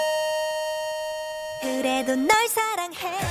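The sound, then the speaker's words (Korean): A golden bell jingle: a steady, sustained ringing tone holds for over a second, then gives way to a brief, bright melodic flourish of sliding, voice-like notes. “자, 골든벨이 울렸고요.”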